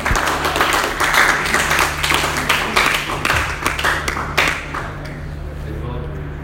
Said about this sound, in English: He said we want to thank God for how far he has brought him. Clap for him.